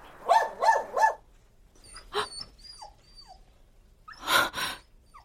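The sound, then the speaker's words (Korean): A dog named Jerry barks three times in quick succession, followed by a few sharper yelps and softer whimpers, then a final pair of loud barks. “제리야, 그만 짖어.”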